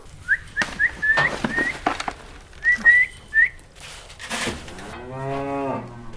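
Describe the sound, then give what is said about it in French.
A Hereford beef cow lets out one long, low moo near the end, after a series of short, high whistled chirps and scattered clicks and rustles. “C'est du Hereford, donc c'est la race vers laquelle je veux me tourner.”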